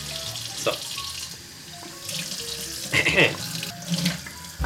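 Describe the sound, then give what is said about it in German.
Warm tap water runs steadily into a sink, a broad hiss with splashy bursts and a few clinks of dishes or utensils, with no one speaking. “Äh, warmes Wasser.”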